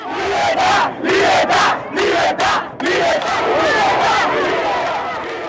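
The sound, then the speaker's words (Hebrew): A large crowd of street protesters in Cuba chants loudly in rhythmic bursts of shouted voices, then the chanting blends into a sustained roar of many people yelling together. “מוציא שם אנשים לרחובות להפגנות נדירות שלא נראו שם כבר עשורים”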